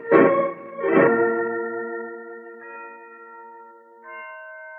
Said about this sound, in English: Listen to those bells, Holmes. Yes, Watson, the historic Blandford bells. They've been ringing from that bell tower for three centuries.